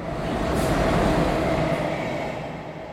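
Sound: inside a moving train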